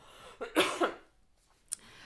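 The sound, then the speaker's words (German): A few harsh coughs burst out in quick succession, followed by a short pause and one more faint cough, with no talking. “ich muss husten, Entschuldigung”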